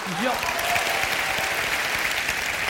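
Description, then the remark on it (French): A crowd breaks into steady, dense applause, many hands clapping together at an even level, with a brief voice rising over the start. “Vas-y, tape, tape, c'est gratuit, tape.”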